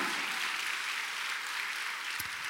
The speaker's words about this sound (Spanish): ¿Cuántos dan gloria a Dios por eso, amado hermano? sí, puede darle un aplauso a Dios porque esos son principios grandes, hermano.